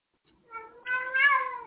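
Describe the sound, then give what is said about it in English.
A person's voice imitates a cat's meow, one drawn-out, rising and falling mew lasting under two seconds, fairly clear with no other talk. “Oh, so uh, they often will get so frustrated they imitate the sounds of a cat.”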